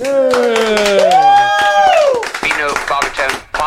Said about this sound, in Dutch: Mag ik een dikke applaus voor